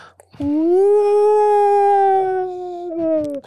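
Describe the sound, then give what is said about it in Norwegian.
A person imitates a whale call at about 22 hertz with one long, sustained moaning hum that rises slightly, holds steady for a couple of seconds, then sags at the end, fairly loud. “Jeg har sittet hørt på opptaket av hval i dag.”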